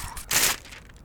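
A single short, crisp rip of paper as a piece is torn off a mysterious paper parcel, fairly loud, lasting about a quarter second amid quieter rustling, with no voices present.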